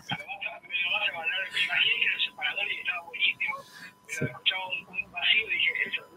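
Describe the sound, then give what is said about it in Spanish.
A short radio station bumper jingle with voices over music, sounding thin and tinny as if played down a phone line, running about six seconds at steady volume. “te hicimos un separador. ¿Qué te parece?”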